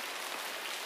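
Steady rain patters on a hard surface, forming a dense, even hiss with no pauses or distinct drops standing out. No voices, just a continuous wash of sound over a brief moment.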